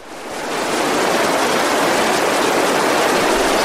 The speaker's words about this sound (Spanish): El río va, señores. el río va.